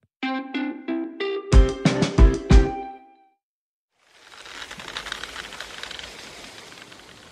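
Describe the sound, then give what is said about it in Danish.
After a brief musical sting and a moment of silence, a steady roar of strong wind over rough sea rises and holds, a dense, hissing rush with rumbling surges underneath. “Ja, det her det er altså lyden af, jeg ved ikke om vi skal kalde det høj søgangsvinde, eller hvad vi skal kalde det, men øh, vi er i hvert fald til vands.”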